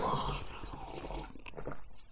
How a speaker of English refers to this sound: Yes, I'm going to have a big slurp of tea. I was saving it for when oh, uh, we oh, started.